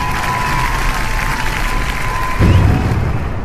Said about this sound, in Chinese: 请全体起立，热烈鼓掌。